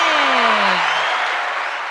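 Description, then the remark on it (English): Loud crowd applause and cheering fill the moment, a dense roar of clapping with a falling whoop near the start, steady for about two seconds with no one speaking. “Look, the crowd goes wild.”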